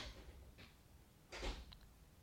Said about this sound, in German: Die Tür hat geklappt.